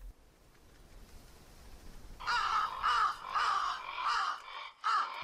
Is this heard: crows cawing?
yes